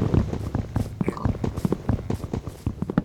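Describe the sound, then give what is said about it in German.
Rapid, steady knocking as wood is harvested by punching in a video game, a quick stream of short hollow thuds repeating for a few seconds. “Ich baue hier schon mal Holz ab.”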